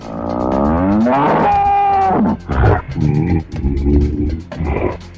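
A fierce wild banteng bull, ready to attack, bellows loudly, one long wavering low call followed by several shorter, rough grunting bellows in quick succession, with no voices present.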